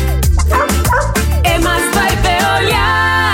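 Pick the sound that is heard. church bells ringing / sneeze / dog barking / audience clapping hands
dog barking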